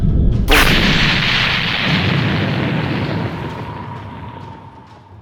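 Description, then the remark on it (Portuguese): A single loud explosion bursts out suddenly, followed by a long rumbling roar that slowly fades over several seconds, with no voices present. “Nesse momento, na hora que ele tá com a mão cheia de sangue assim do peito dele, ele pega assim e ele, ele bate com a mão suja de sangue no chão assim, faz um selo mágico e ele desaparece uma explosão.”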